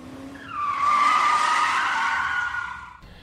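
A car brakes hard with a loud, sustained tire screech lasting a couple of seconds, rising in quickly and trailing off abruptly at the end, with no voices over it.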